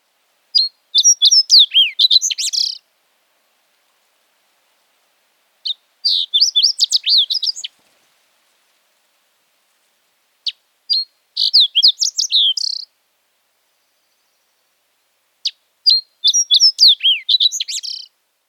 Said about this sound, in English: We're going to listen to some subspecies song from the fox sparrow. First up is sooty. Sooty subspecies lives on the Pacific, along the coast, and up into Alaska.